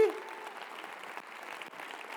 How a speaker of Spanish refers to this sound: ¿Alguien en este lugar tiene un Dios grande o qué? ¿Alguien puede aplaudir la grandeza de Dios aquí?